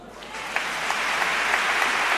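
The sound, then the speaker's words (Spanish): A crowd bursts into sustained applause, the first ovation for the pregonero during a pregón, after his review of the advocaciones; dense clapping swells slightly and holds steady at a fairly loud level, with a few sharper claps standing out in the wash of sound. “Primera ovación para el pregonero después de hacer ese repaso por las advocaciones que van a procesionar en el Santo Entierro Grande y también las vísperas que han aparecido en el pregón en este primer instante.”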